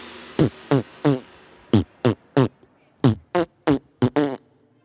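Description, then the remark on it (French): A series of ten short, loud fart noises in a bouncy rhythm, grouped in quick sets like a little tune, with brief silences between and no talking. “Ou tu pètes vraiment trop fort? Pourquoi ne pas créer des chansons instrumentales avec tes pets?”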